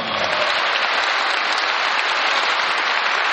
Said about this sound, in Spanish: Fuerte el aplauso al Señor.